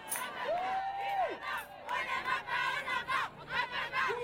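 A protest crowd chants at an anti-PMA (anti-assisted-reproduction) demonstration in France in 2019, many voices shouting in loud rhythmic bursts, with a sustained whistle-like tone sounding briefly near the start.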